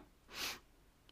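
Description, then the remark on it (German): A single short sniff, a breathy nasal inhale swelling and fading over a fraction of a second, fairly quiet with no talking. “zitterte ein bisschen, schniefte.”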